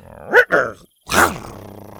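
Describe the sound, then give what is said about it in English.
An animal named Buck growls in two short, harsh bursts as someone tries to tie his leash to a tree and he yanks it free, the second rougher and louder, with a brief silence between and a faint low rumble trailing off afterward. “Every time he tried to tie a knot, Buck just growled and yanked the leash free.”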